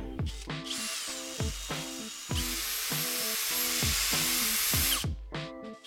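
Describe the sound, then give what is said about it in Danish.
A power screwdriver used by technical service staff at the opening of a school Playspace on Skansevej in late July whines steadily for several seconds, its motor pitch shifting as it drives screws, with a brief pause before it runs again, loud with no talking. “Vi lukker denne podcast til lyden af den skruemaskine, som det tekniske servicepersonale har travlt med at benytte i forbindelse med åbningen af Skansevejens skoles Playspace i slutningen af juli.”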